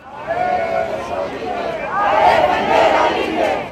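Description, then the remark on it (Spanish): A crowd of tens of thousands chants in unison at a rally in the Plaza de la Constitución in defense of the vote, against the Plan B reforms approved in the Senate; many voices shout together in a steady, rhythmic roar that swells louder midway and stays dense and sustained throughout. “Acudieron decenas de miles a externar su desacuerdo por las reformas aprobadas en el Senado.”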